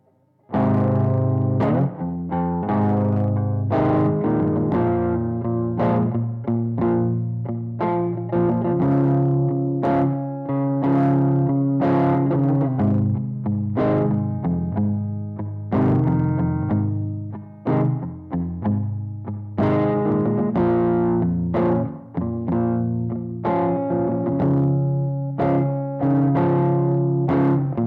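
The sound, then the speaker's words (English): A singer sets up a layered vocal loop through a vocal effects pedal, stacked sung tones repeating in a steady rhythmic cycle, loud and continuous with a processed, chorused, slightly distorted sheen and no speech. “I'm going to set up a loop and then I'm going to start singing some different sounds for you so you can hear what it sounds like.”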